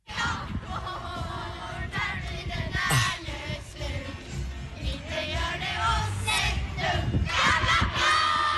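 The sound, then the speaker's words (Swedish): Children sing and perform together on a ledge in a schoolyard, their high voices blending with steady crowd chatter and occasional shouts, the whole mix loud and continuous throughout. “Så finns det en avsats på skolgården där de sjöng och uppträdde och sånt.”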